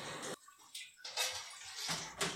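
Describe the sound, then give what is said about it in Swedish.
Gin of 45.34 percent is poured by hand through a funnel into a bottle, without the bottling machine, a hissy, splashing stream that runs in bursts with brief pauses, rising and falling in loudness, with no talking over it. “Så tratt i flaskan. Ja, man fyller på helt enkelt bara.”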